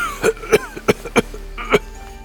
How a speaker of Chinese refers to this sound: 老和尚法明咳嗽的更加剧烈了，即便是李英这毛头小子，也听到了其中的生机在飞速的消逝。